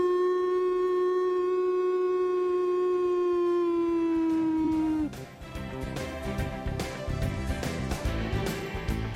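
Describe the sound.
A man imitates a wolf howl on the Onda Madrid radio sports show, with one long, loud tone that sinks slowly in pitch for about five seconds, then it cuts abruptly to a busy, noisy background.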